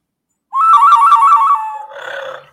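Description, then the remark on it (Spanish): A clay bird whistle, bought in Teotihuacán, sounds a single warbling, trilling mid-pitched tone for over a second, then trails into a breathier, airier flutter before stopping. No voices are heard. “Lo erótico, yo voy a tocar el pajarito para darle la bienvenida a lo erótico.”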